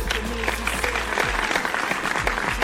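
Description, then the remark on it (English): A burst of applause and cheering from a crowd, dense and steady for a few seconds, with a low rumble underneath and no voices speaking. “Give it up for yourself.”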